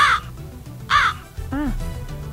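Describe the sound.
Two loud, harsh crow caws about a second apart, each short and raspy, played as a sound effect from a soundboard, with low murmuring voices continuing underneath and after them.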